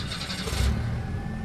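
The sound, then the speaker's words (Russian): A car engine turns over and revs up, a brief, loud mechanical roar with a steady low rumble, heard alone without any voices. “У нас было пять минут, и мы сели в машину.”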